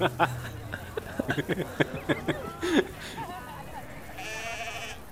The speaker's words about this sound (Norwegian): Uh, folkens, hvorfor kommer alle sauene bort mot oss? Det er sikkert 20 sauer. Hvorfor kommer alle her?